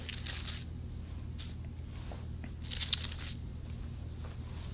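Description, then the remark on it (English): Soft papery rustles of book pages being turned to find a passage in the Gospel of Mark, a few brief swishes spaced irregularly over a low, steady background hum, with no one talking. “come on, keep turning the pages.”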